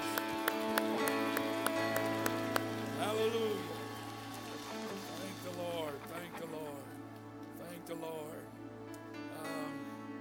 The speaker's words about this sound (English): Thank the Lord. Clap your hands one more time and give Jesus some praise.